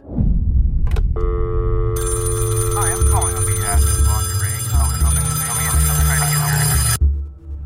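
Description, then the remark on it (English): A telephone rings steadily with a sustained electronic trill, layered over a low droning hum and muffled voices that rise in the middle before the ringing cuts off near the end. “Our story begins with a phone call.”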